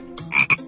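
A frog croaks in quick raspy bursts, two louder pulses standing out over a buzzy, ribbity trill, all within under a second, with no talking; the croak of the little frog character Guagua on the children's storytelling show 宝林叔叔讲故事.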